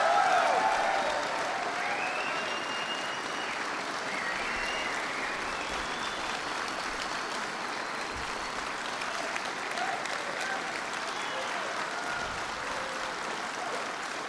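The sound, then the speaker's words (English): Sustained audience applause, a dense and steady wash of many hands clapping at an even level for the whole stretch, with faint crowd voices blended underneath. “Were you applauding for someone in particular?”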